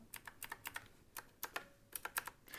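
Clicky MX Blue mechanical keyboard switches on an Asio Retro Classic keyboard clack in quick, uneven bursts of typing, each keystroke sharp, with brief pauses between runs of presses and no voices.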